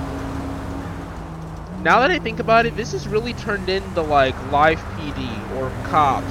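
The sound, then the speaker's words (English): A steady, broad roar of interstate freeway traffic on the Senora freeway rushes along in the background for the whole stretch, where police meet to do a radar run, while a man talks over it. “As you can probably hear the traffic behind me.”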